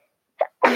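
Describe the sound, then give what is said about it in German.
A single loud sneeze: a short breathy intake followed by a sharp, explosive burst that cuts off abruptly, with no talking around it. “Gesundheit”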